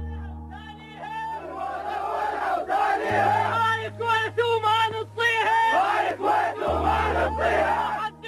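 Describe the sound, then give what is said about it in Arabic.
A large group of Iraqi soldiers chant and shout battle cries in unison in the presence of Saddam Hussein, vowing to fight to the last breath, loud and rhythmic, over a sustained low drone that shifts pitch partway through. “هتاف الجنود العراقيين بحضور صدام حسين بيوعدوه بالقتال حتى الرمق الأخير صدام تقدم وإحنا جنود بدوم الموت ولا تسليم”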